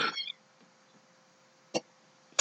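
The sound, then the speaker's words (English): A cat gives a short meow-like cry, followed after a quiet pause by two brief, sharp bursts of noise in an otherwise still room. “Fucking cats.”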